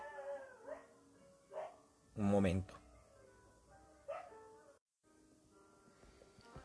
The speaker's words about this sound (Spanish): Ok, volvimos después de la pelea de perros en la calle.